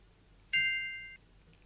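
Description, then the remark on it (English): A single clear bell ding, the cue to say the next word in a word memory game, rings out with a sharp attack and a bright, sustained metallic tone lasting about half a second, then stops abruptly against a quiet background. “From now on, just say the next word when you hear the bell.”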